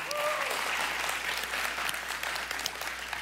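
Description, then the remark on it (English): An audience claps steadily and enthusiastically for the Christmas Angels outreach, a dense, sustained wash of applause with a few louder hand claps and a brief cheer near the start. “Let's uh, hear it for that.”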